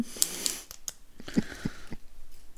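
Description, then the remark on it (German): Wet chewing of chewing gum with irregular squishy clicks and smacks, fairly quiet and continuous over a couple of seconds, with no talking. “isst du gerade?”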